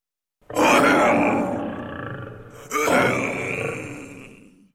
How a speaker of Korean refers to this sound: 길동이가 홍의 손을 맞잡고 호랑이 등에 올라타자 호랑이가 길동이 집을 돌아보며 천둥 같은 소리를 냈어.